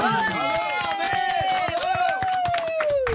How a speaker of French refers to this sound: Mesdames et messieurs, applaudissements pour la seule, la grande Armelle Lévy